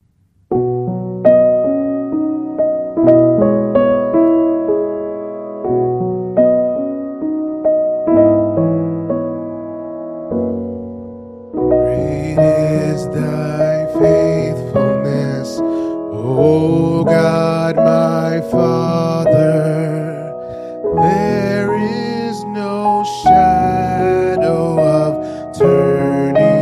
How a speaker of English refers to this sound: Let's stand, let's close in a song.